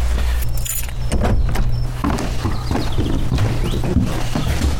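keys jangling

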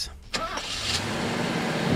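car engine running

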